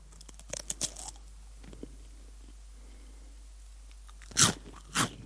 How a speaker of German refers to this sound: Hört ähm. ihr die trockenen Käsestangen?